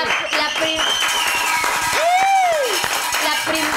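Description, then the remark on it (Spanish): Audience applause: a steady, dense patter of many hands clapping throughout, mixed with voices and a brief rising-then-falling whoop partway through. “Un aplauso este, para los Un aplauso.”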